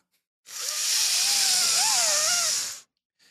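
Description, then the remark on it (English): A loud, steady whooshing suction sound runs for about two seconds, a broad airy hiss with faint wavering whistle tones, starting and stopping abruptly with no one talking. “I can hear I can hear the vacuum sound of cell.”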